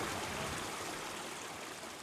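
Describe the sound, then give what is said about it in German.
A babbling stream, the Schwarze Schluftwasser beside the Eckerlochstieg trail up the Brocken in Harz National Park, Germany, rushes and splashes steadily, a dense, even wash of water noise, constant throughout, with no voices; early March, forest under fresh snow. “Ein Bach, die schwarze Schluftwasser, plätschert im Hintergrund.”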